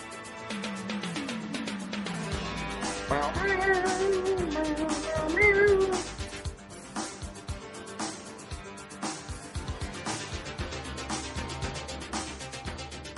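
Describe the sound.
A person makes drawn-out, wavering meowing sounds in imitation of an electric guitar, loudest in the first half, then giving way to quieter, choppier vocal noises.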